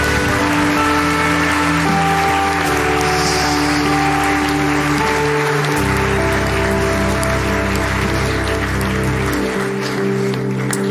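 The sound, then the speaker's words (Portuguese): An audience claps steadily in a dense, continuous wash of applause, with sustained keyboard chords shifting underneath and no one speaking. “Dá salva de palmas para o Senhor.”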